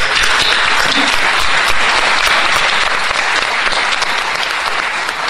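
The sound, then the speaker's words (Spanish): A crowd applauds loudly and steadily to welcome a singer-songwriter, a dense wash of many hands clapping that holds at an even level for about five seconds without pause or speech. “Con ese mismo aplauso le vamos a dar la bienvenida”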